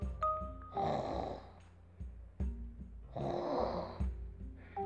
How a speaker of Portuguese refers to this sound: Em cima de uma avó roncando.